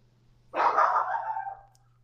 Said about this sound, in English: The, ch- the our Chihuahua neighbors are barking, so naturally oh, they're barking.